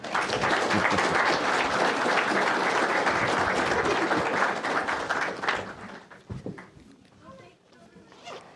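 An audience welcoming a speaker claps loudly and steadily for about five seconds, a dense wash of many hands, before the applause quickly tapers off into a few scattered claps and room noise.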